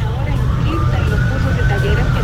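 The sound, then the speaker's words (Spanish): An ambulance siren wails steadily over the low rumble of road traffic as the ambulance heads for the clinics in the city centre, stuck in traffic with no one giving way, with a voice talking underneath the whole time. “Por coincidencia de la vida, vengo detrás de una ambulancia que ha tomado las carreras hacia las clínicas que están en el centro de la ciudad.”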